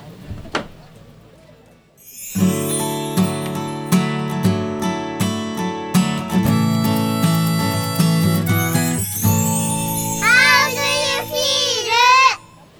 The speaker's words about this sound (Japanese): それではここで1曲お届けしましょう